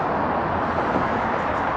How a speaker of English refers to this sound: Cars from the interstate in both directions and at the top of the overpass.